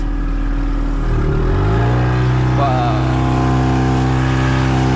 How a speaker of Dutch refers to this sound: Volle kracht vooruit. Ja, de motor zit nog niet aan het einde. Als ik dat nu aan het einde zet...